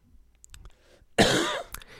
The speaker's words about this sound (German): Mit Husten.